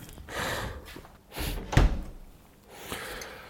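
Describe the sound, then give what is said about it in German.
A door swings and shuts with a solid thump near the middle, preceded by rustling and handling noises, then a softer shuffle afterward. “Wenn du die Tür zumachst, höre ich dich nicht.”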